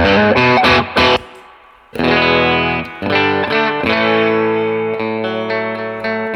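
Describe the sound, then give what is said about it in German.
A clean electric guitar on a humbucker pickup: a few quick chord stabs, then loud strummed chords that ring out and sustain, struck again roughly once a second, with no talking. “So, ich drehe erstmal die Verzerrung raus Genau, und jetzt mache haben wir den hier noch- clean.”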